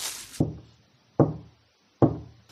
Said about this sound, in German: Oh, schaut mal. Da kommt ein Mann auf unser Haus zu und klopft an die Tür.